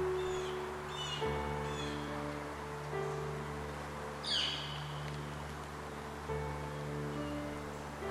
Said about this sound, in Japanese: 何を話してるのかなあれ小鳥さんもいるね家族かなお友達同士かな